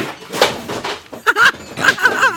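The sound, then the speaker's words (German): A couple of sharp clattering knocks as a cat knocks something over, followed by a person laughing and talking. “das war die Katze.”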